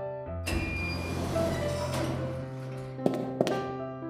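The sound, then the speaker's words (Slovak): Elevator doors in an apartment building slide shut over a steady mechanical hum, a smooth rolling whoosh ending in two sharp metallic clunks a moment apart. “Dvere výťahu sa zatvorili.”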